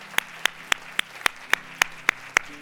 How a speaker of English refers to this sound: So, can we right now just celebrate those that just made that decision? Can we do that? Yeah, let's applaud them. We're proud of them. God is proud of them.